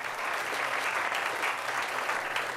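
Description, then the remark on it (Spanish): Steady applause from a crowd, a dense, even patter of many hands clapping without pause, sustained at a constant level for a few seconds with no voices over it. “No sé si vas a poder meter unos aplausos, pero ahora me gustaría que mete una ovación o unos aplausos.”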